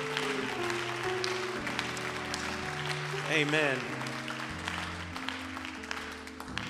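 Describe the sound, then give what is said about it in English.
An audience claps steadily in praise to the Lord, many hands making a dense, sustained patter over held organ chords, while a single voice briefly calls out partway through. “Can we clap to the Lord?”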